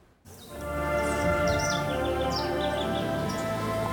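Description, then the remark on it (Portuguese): Birds chirp and twitter continuously over a steady outdoor ambience, with bright repeated calls layered at moderate loudness and no voices present. “Os sons dos pássaros nos levam a uma viagem no tempo.”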